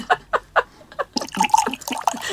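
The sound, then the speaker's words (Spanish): Wet squirting noises, likely made by a voice imitating the jet of female squirting: four short spurts, then a rapid, sputtering flurry of splashy bursts. “No, perdóname, te estás equivocando y no tengo un vaso para cachar mi agua, pero no suena así.”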